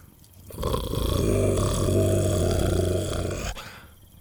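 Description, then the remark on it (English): A deep, rumbling dinosaur growl swells up and holds for about three seconds, loud, then cuts off, with no talking around it. The dinosaur growls with its head lowered after skidding to a stop at a campfire. “He just lowered his head and continued to growl.”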